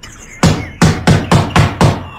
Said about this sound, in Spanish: Oyó a alguien llamando a la puerta principal y unos golpes dados en ella con los nudillos, cada vez más fuertes.